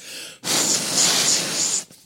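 A single long, forceful puff of air blown into the slot of a Nintendo game cartridge that is not working, a breathy hiss lasting over a second with a faint whistly edge, then quiet.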